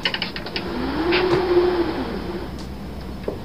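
A theatre wind machine cranked steadily, its whooshing howl rising and falling in pitch over a dense rushing noise, with faint mechanical clicks near the start and end.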